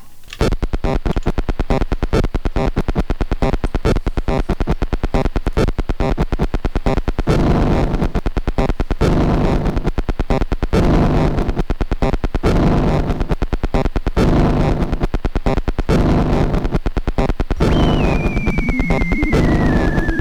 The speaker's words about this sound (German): So macht man also mit Fernbedienungen Musik. Ich bin gespannt, ob irgendjemand diese Idee aufgreift und daraus dann mal ein abstraktes äh, musikalisches Kunstwerk macht.